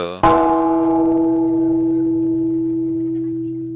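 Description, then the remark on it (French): A single gong is struck once, ringing out loud with a rich metallic tone that sustains and slowly fades over several seconds. “le gong retentit et vous vous réveillez.”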